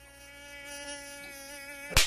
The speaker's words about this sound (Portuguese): Peraí que tem um pernilongo aqui.